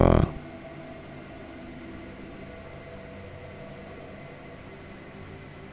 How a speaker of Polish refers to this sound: Deszcz zaczyna padać coraz obficiej, dodatkowo wieje przenikliwy wiatr. Robi się naprawdę zimno i powoli także ciemno.